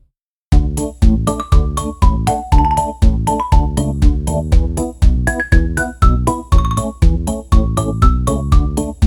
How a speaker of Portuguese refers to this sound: E não passas o genérico? Ah, tens razão.